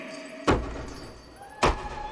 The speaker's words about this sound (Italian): Non lo vedi? Sta sbattendo la testa contro il muro. Non state lì impalati! Aiutatemi a fermarlo!